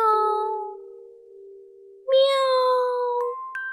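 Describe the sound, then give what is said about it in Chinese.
Two long, drawn-out meows from a small cat outside a window, one after another: the first steady and fading, the second louder and slightly higher-pitched, each with a clear tonal, wavering cry. “忽然，窗外传来一阵奇怪的叫声：“喵，”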